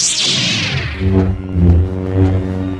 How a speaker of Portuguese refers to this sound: Todos aqueles efeitos especiais clássicos que todos nós conhecemos como sabre de luz